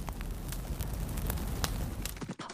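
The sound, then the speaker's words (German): A campfire crackles steadily with frequent sharp pops and snaps over a low, continuous rumble of flames, fairly loud, with no voices. “Cowboy-Feeling am Lagerfeuer unter einem endlos weiten Sternenhimmel.”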